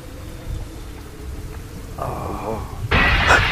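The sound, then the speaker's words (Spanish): A low, rolling rumble of thunder gives way to rain that swells abruptly into a loud, steady, hissing downpour as a storm turns violent. “La tormenta se puso violenta. Está lloviendo más fuerte.”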